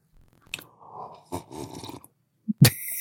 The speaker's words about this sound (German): Man hört ihn schlürfen.